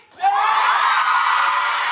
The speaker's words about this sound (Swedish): så de ställer sig upp och skriker. Allihop är överlyckliga.